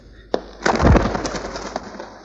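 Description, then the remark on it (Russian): A sharp snap, then a partridge, missed by a hunter throwing a nugget at it, bursts into flight: a loud flurry of rapid whirring wingbeats that quickly thins out and fades away. “Честно, еще на куропаток с самородком не охотился.”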